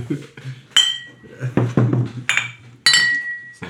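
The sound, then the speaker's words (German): Two bright glass clinks ring out as glasses are clinked in a toast, each leaving a short sustained chime, with a softer tap between them over a low murmuring background. “Zum Wohl. Zum Wohl.”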